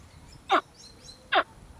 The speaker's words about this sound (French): Alors, on va écouter par exemple un tout jeune caïman à lunettes. Euh, euh, le, petit, en émettant ce signal de détresse, dit Help au secours.